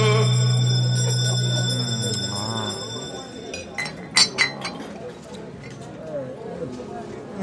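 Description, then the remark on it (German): A bell is rung to signal the last round, ringing out with a bright metallic tone and shimmering overtones that slowly fade over about three seconds, followed by a few sharp clinks and faint background voices. “Wir lassen die Glocke läuten und äh, gehen in die letzte Runde.”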